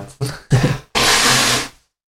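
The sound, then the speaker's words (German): Someone blows their nose: two short snorting puffs, then one longer, loud, rushing honk that cuts off into silence. No talking is heard. “Ich muss mal ganz kurz äh, die Nase, Nase putzen.”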